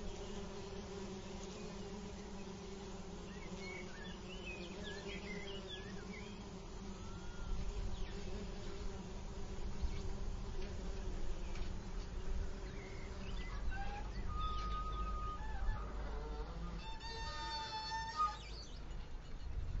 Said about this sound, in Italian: e il brusio luminoso di api nel silenzio sterminato dei prati.